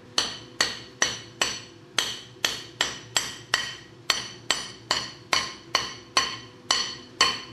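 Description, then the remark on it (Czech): In a ring-making workshop in Hluboš near Příbram, a hammer strikes a small metal ring band fitted on a special mandrel again and again in a steady rhythm, about two blows a second, each a sharp bright clink with a brief ringing tail. No one speaks. “Když ten někdo do toho buší, buší, tak nezničí to?”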